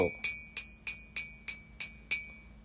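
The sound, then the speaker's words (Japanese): Seven evenly spaced taps on the handle of a ceramic mug, each a bright ringing clink with a sustained tone that fades before the next strike, alone. “えーと、マグカップを2つ1個は両方とも陶器でできていますで取っ手の音がこれ取っ手の音”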